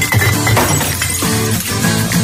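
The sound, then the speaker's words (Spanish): Glass bottles crash and clink as they tumble into a recycling bin, a loud rush of shattering and rattling glass lasting a couple of seconds, with no talking. “Reciclar las botellas de vidrio”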